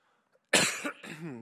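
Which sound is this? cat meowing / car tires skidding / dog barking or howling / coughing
coughing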